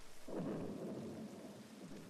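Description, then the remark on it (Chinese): A low, rumbling roll of thunder swells in after a quarter second and lingers, layered over a steady hiss of heavy, wind-blown rain in stormy weather; no voices are heard. “原来呀，刚才和黑喵说话的时候，他没留心，被风吹进来的雨打湿了翅膀。”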